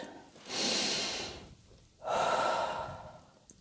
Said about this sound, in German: Sie geht in die Küche und setzt sich auf die Küchenbank. Sie atmet tief ein und aus. Ach, das tut gut.